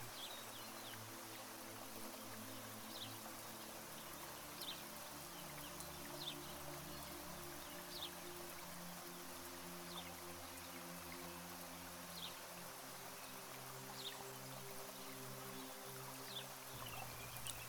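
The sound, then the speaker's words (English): A soft, steady hiss of gentle rain falls continuously outside, heard through an open window, with a few faint, scattered chirps of courtyard birds such as sparrows, swifts and doves, and a low hum underneath. “The sound of whispering rain falling outside blends with the birdsong from the courtyard.”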